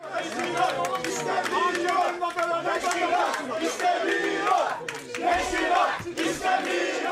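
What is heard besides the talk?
crowd shouting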